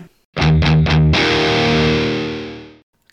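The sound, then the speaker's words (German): Heavily distorted electric guitar riff: three quick chugging stabs followed by a sustained, fuzzy chord that rings out and slowly fades. Loud, aggressive and upfront, with no voices. “welche Pedale oder Effekte die da benutzt haben, aber das ist schon so ein, so ein relativ aggressiver Sound”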